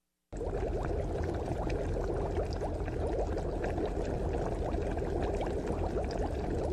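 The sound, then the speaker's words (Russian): About three cups of water pour steadily into a pot, to be brought to a boil, for several seconds, a continuous splashing rush with bubbly, rising gurgles and an even loudness throughout. No one speaks. “Потом доведите до кипения примерно 3 стакана воды.”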